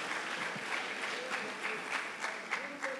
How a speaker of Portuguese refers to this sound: Se você está comigo nisso aqui, meus irmãos, levante as suas mãos, aplauda Jesus com alegria, diga: Senhor, eu preciso orar.